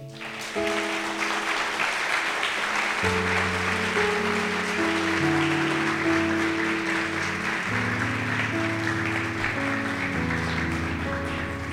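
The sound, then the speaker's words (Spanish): An audience applauds Jesus steadily and loudly for the full stretch, a dense crackle of many hands clapping over sustained organ-like keyboard chords that shift underneath. “Dar un aplauso a Jesús.”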